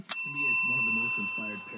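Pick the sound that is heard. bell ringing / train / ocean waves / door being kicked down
bell ringing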